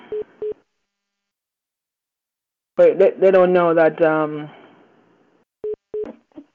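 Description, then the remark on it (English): Telephone line beeps sound in two pairs, short steady mid-pitched tones at the start and again near the end, with a person speaking briefly in between. “that they have the beep. Beep, beep, beep, beep, beep, beep.”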